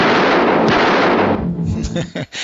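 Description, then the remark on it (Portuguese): A dense, loud burst of rapid gunfire in a film death scene, where a character is shot, roars for over a second, then breaks into scattered, sharper shots mixed with muffled voices. “eu acho engraçado porque ele tá levando tiro, mas ele, ele tá meio que argumentando.”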